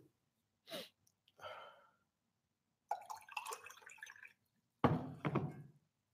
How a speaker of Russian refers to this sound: Попью воды.